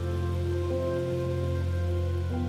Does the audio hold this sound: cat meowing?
no